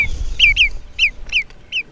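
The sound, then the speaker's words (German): A small wader, grey-brown above and almost white below, stalking on long thin legs, calls: a series of five or six sharp, high, downward-slurred notes at an even pace, clear over a low rumbling background, with no voices. “dann halten Sie mal Ausschau nach so einem oberseits graubraunen und unterseits fast weißen, auf langen, dünnen Beinen stelzenden kleinen Vogel. Der ruft in etwa so hier”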